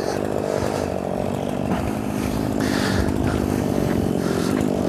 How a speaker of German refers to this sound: Wir hören den Leerlauf einer Kettensäge.